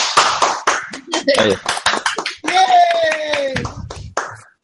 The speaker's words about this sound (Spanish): Bueno, ya han demostrado, creo, que son unos grandes y súper profesionales y un 10 en todo, de la manera que lo hacen, de la manera que hablen, en su producto, en el precio, en todo. Un aplauso.